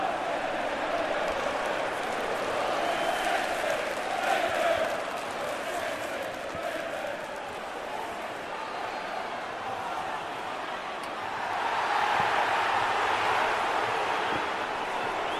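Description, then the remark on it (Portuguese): A large stadium crowd of Manchester City football fans roars continuously in celebration, a dense wash of voices that swells twice, briefly in the first seconds and again more loudly near the end, with no single voice standing out. “Tem que conter essa comemoração aí a torcida do City, porque o United não precisou de muito tempo para deixar tudo igual.”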